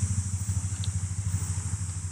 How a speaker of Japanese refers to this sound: やっぱりちょっと車の音がうるさいかもしれないですね。ちょっと聞き苦しいかもしれないんですけど。